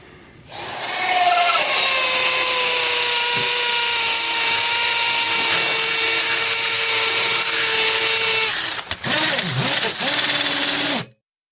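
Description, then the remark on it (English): A power tool, like an electric saw or drill, whines steadily and loudly for about ten seconds, its pitch dipping and wavering briefly near the end before it cuts off. “I came home and I heard a saw going. A saw or a drill.”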